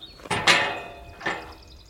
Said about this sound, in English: Sorry about the gate.